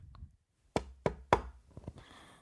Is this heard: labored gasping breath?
no